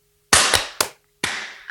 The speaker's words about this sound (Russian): Да, надо давайте же, все же хлопнуть, чтобы... хлопнем. Надо же хлопнуть, чтобы рассинхронизироваться. А, обратно. ну да, вот на хлопке закончим передачу. Друзья, всем спасибо, пока-пока, и хлопок.